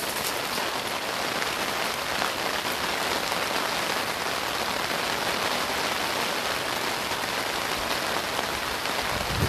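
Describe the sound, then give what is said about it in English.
Steady, dense rain falls continuously, a broad hissing patter with countless small drops striking a surface, holding an even loudness throughout with no voices. “it's raining.”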